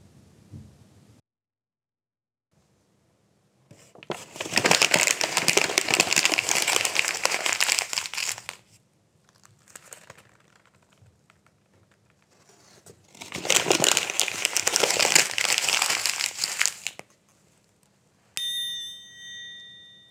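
Paper being torn and crumpled in two loud, rustling bursts of several seconds each with a quiet pause between, followed by a short bright ringing tone at the end.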